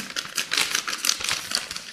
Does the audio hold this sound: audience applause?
no